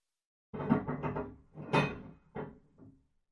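A door latch is being locked, with a series of rattling, clunking metallic bursts over a couple of seconds, the last ones shorter and quieter. No voices.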